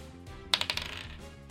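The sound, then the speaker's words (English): A die is rolled to hit in a tabletop game and clatters across a hard table, a quick burst of sharp bouncing clicks that fade out over about half a second, with no talking. “Roll to hit.”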